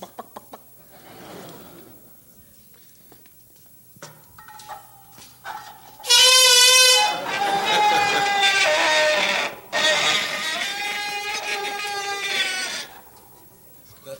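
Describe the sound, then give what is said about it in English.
Sounds made by a bicycle: soft clicks and rattles, then two loud, long, brassy honking squeals, each lasting a few seconds with a short break between. No one speaks. “I should do is demonstrate to you the different types of sounds that you can get from a bicycle, because it actually does make some very interesting uh, sounds, and of course, that's what we're all interested in.”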